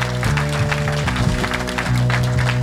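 Audience applause, a dense, steady patter of many hands clapping for a few seconds, with sustained low musical tones playing underneath.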